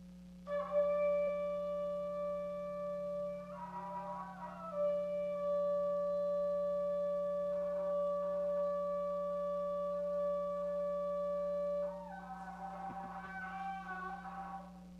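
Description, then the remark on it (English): A long shofar blast, the Tekiah Gedolah or "great blast", rings out alone, one steady, buzzy horn tone held for about eleven seconds before it wavers and breaks near the end, with a low hum underneath. “Okay, and lastly, we have the, the, the Tekiah Gedolah. Uh, that is the great blast.”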